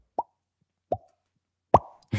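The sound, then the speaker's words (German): Three hollow, resonant plops fall about a second apart, each ringing briefly like drops hitting water in an echoey space, followed by a burst of noisier sound at the very end. “Das klingt eher wie so Wassertropfen, oder?”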